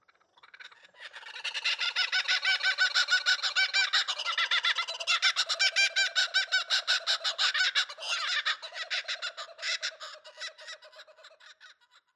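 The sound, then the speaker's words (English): A recorded bird call, loud, a harsh, rapid series of repeated notes that runs for about ten seconds before tapering into quicker, separate pulses. No one speaks. “Apart from watching and photographing birds, I also record bird sounds. Sounds such as this.”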